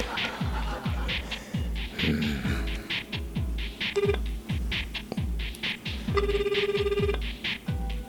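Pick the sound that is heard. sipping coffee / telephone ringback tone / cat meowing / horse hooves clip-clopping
telephone ringback tone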